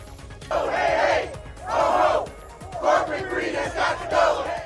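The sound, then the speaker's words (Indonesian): A crowd of striking United Auto Workers (UAW) union members chants at a rally in Detroit, Michigan, during a strike against the three biggest US automakers, in loud, rhythmic bursts, about five shouted phrases rising and falling in quick succession. “Para anggota United Auto Workers Union atau UAW melakukan aksi mogok dan berunjuk rasa di Detroit, Michigan sejak Jumat”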